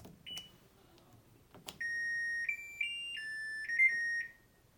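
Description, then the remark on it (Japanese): A household washing machine's control chime at home: a couple of soft button clicks, then a bright electronic melody of stepped beeps rising and falling in pitch along a musical scale for a few seconds before stopping. “洗濯機の操作音この音階があるパターンですね”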